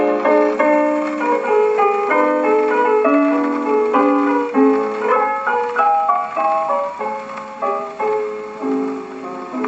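A 1920s jazz recording's instrumental intro plays a bright, steady melody of distinct notes with a thin, band-limited vintage recording sound, moderately loud and with no voices.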